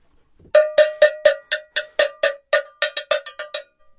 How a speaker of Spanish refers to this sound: Voy a probar a ver si la voz y la campana, ¿cómo suena?